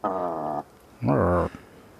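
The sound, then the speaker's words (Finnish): A bird gives two drawn-out, nasal clucking calls, the second bending up and then down in pitch, with a brief pause between them and no one talking. “Mun mielestä tota, kun kuunteli siis sitä kotkotusta ja jupinaa ja, ja sana, sanailua niin, ja, just tällaisia”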